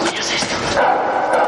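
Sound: dogs barking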